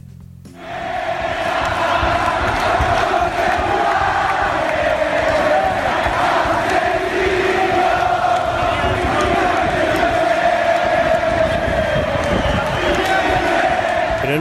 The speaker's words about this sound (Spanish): Un compañero chileno me contó que en un partido de fútbol se unieron las hinchadas de Colo Colo y de la U de Chile solamente para gritar contra el poder,